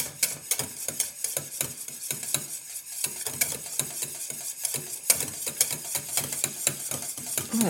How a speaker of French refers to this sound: je fouette, je fouette, je fouette, je fouette. Voilà. Et là, ça fait au moins quelques minutes hein, qu'on est en train de fouetter